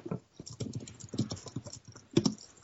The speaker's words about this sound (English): uh, riveting listening to it too. this is what podcasts were made for. the sound of a man tap typing.